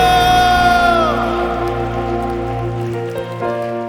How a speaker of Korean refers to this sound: 우리 하나님께 감사와 영광의 박수 올려드립시다. 할렐루야!